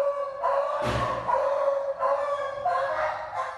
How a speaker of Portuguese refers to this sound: Essa semana, câmeras de segurança de um condomínio no centro da capital flagraram um homem batendo no cachorro dentro do elevador. Os vizinhos dizem que as agressões são frequentes.